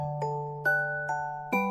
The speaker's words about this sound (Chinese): 刚刚结束午休的学生，在急促不休的上课铃声催促下，并没有如老师料想中那般迅速的清醒过来。